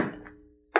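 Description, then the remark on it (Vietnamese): Two hollow, clunking footsteps about three quarters of a second apart, the second sharper and brighter, moderately loud with no voices, as someone walks toward an office. “những tiếng lộc cộc vang lên đó là tiếng bước chân Chúng càng lúc càng rõ và chỉ có thể biết được Chúng đang hướng đến văn phòng của cô”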